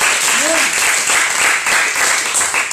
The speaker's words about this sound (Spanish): Alegre, se grite, aplauda,